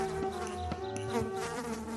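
A housefly buzzes continuously for a couple of seconds, a steady, mid-pitched drone with a slightly wavering tone and a few faint ticks, with no voices.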